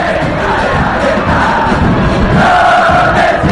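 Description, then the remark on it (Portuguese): A large crowd of Colo-Colo football supporters chants the candombe song "Candombe para José" together, a loud, dense wall of massed voices that carries on steadily without a break. “Vamos ouvir Vamos Colo Colo e a música correspondente, que se chama Candombe para José, que o Matias vai explicar assim.”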